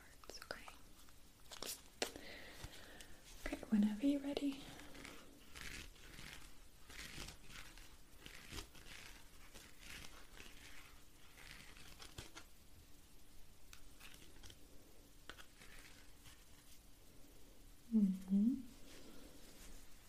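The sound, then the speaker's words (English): Someone whispers a question quietly into a set of cards, their hushed breathy speech mixed with soft crinkling and tapping handling noises, with two brief higher voiced sounds breaking through. “of your question and you need to whisper it into these”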